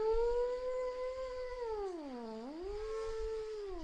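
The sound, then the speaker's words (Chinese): A voice imitates a gust of wind with one long, steady hooting "woo" that dips low in pitch near the end and then rises again. It is moderately loud and has no other sounds with it. “嗖，又过来一股风声，嗖一声。”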